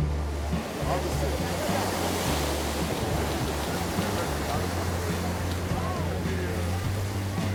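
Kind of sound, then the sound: nature, sea waves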